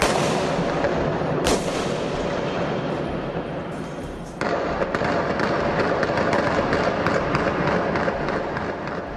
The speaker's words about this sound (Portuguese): metralhadora, é um barulho ensurdecedor. Então, cada barulho parecia que estava dentro da minha casa, a janela vibrava e foi momentos assim de terror.